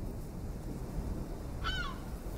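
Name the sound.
seagulls squawking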